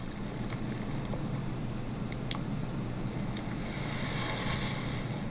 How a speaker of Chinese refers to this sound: 刚刚浪的声音， 对， 嗯，这两个声音档你要仔细听，哪一个比较吵？ 这边我只有听到浪的声音， 对，浪的声音跟一一点点滴滴的声音